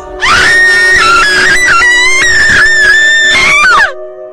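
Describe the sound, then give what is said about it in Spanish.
A loud, sustained scream coming from downstairs in a house in the dark of night rises and wavers in pitch for nearly four seconds, then cuts off abruptly, with a faint steady hum underneath. “Me desperté en la oscuridad de la noche por un fuerte grito viniendo desde abajo.”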